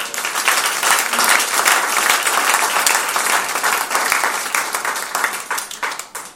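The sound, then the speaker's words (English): A crowd applauds steadily, many hands clapping in a dense, continuous patter that holds loud for several seconds before tapering off toward the end. No one speaks over it. “I can say a mouthful, but a round of applause.”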